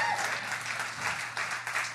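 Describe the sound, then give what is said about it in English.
A crowd claps in a steady, scattered patter of many hands, moderately loud, continuing evenly for a couple of seconds with no one speaking. “Scattered applause.”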